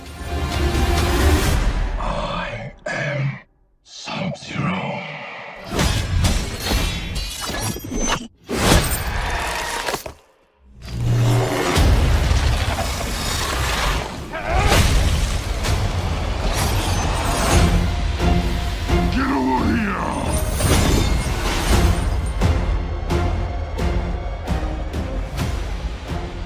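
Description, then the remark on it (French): A trailer for a film featuring Sub-Zero and Scorpion, released 16 April 2021 on HBO Max and in cinemas, with a loud, dense mix of booming impacts, crashes and whooshes, broken by a few abrupt cuts to silence before surging back in at full force. “Donc il y a un trailer aussi qui est sorti. Ça sort qu'on s'écoute tout de suite.”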